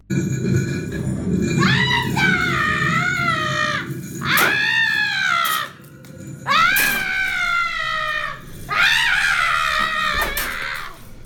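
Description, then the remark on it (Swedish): Four long, wavering, high-pitched screams arrive one after another with short pauses between them, loud and shrill over a steady low rumble of background noise, from a horror walk on a ship at Gröna Lund amusement park in Stockholm. “Jag hörde något om zombies och mördarclowner det vi hör här är från en promenad i det här nya eh, skeppet, heter det. Det är en, mm. en, en, en skräckvandring eh, på, en, eh, på en båt”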